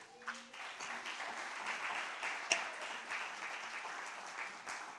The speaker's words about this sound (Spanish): ¿No le parece maravilloso? Dele un aplauso gigantesco a Dios.